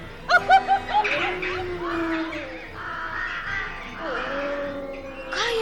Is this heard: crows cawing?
yes